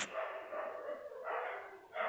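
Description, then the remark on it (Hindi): Dogs bark in a steady, overlapping clamor, the noise swelling in a few loud waves with no pauses. Nobody speaks over it. “कुत्ते में जो भाई अभी बॉकर है”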